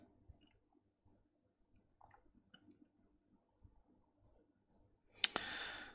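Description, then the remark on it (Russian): Soft, scattered keyboard clicks tap irregularly, then a sudden loud clack gives way to a brief rush of noisy rustling at the end. “Так, что ты печатаешь или, блядь, или что ты замолк?”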